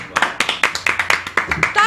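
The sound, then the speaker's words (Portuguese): Quick, steady hand clapping, about a dozen sharp claps in under two seconds, each a bright crisp smack in an even, eager rhythm. “Eu passava de palmas, pessoal”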